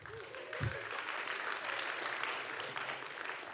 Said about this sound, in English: Thanks for my wife for starting that applause.